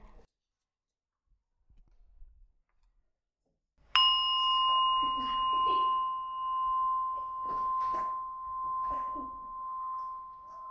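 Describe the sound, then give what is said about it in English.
A single mindfulness bell is struck once during a hand-breathing meditation practice and rings out in a long, clear sustained tone that slowly fades, with soft indistinct voices or room noise murmuring beneath it. “Listen to the bell.”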